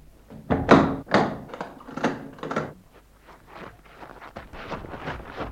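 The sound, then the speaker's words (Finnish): Several heavy, loud thuds knock on a chapel door in an uneven rhythm, then give way to softer, scattered footsteps moving about. No one speaks. “Kappelin oveen kolkutetaan. Meidän on häivyttävä tätä takaovesta.”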